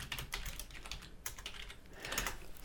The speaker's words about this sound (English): So I, I apologize if you can hear me typing.